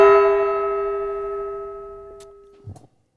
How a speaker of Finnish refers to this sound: Ding dong.